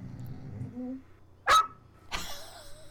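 A dog lets out two sharp, short barks about half a second apart, loud against an otherwise quiet background.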